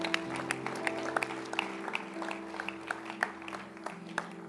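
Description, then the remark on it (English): A crowd of people clapping their hands in a steady, rhythmic beat over a sustained low musical drone, the claps moderately loud and continuing throughout. “Clap your hands where she thinks well of me.”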